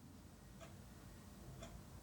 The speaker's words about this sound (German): Alter, die Uhr tickt drüben oben. Ja, ne? weißt du, was ich meine? Endlich Alter. hörst du es auch mal. Ja, jetzt? Aber. Jede Podcastaufnahme ist versaut, weil die Uhr hier im Hintergrund.